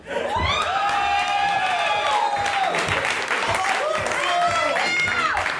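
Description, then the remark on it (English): A live audience applauds steadily and loudly, with scattered cheers and high whoops rising over the clapping for several seconds. “Now, it's human nature that people won't like it if you applaud at them.”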